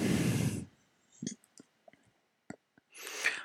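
A few sharp, quiet clicks of a mouse button being pressed to open the VG Direkte link, spaced irregularly between soft breathy rushes of noise at the start and end.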